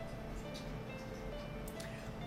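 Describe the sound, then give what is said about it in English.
A mobile phone, left behind by its owner, rings in the room as someone calls it, its faint electronic ringtone melody playing steadily over a low background hum for a couple of seconds. “He freaking left his phone in here?”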